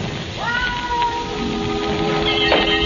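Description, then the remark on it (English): A cat lets out a long, drawn-out yowl that rises and then holds, loud, over a steady background hiss like rain. “Plain cat make as much noise as a garbage collector.”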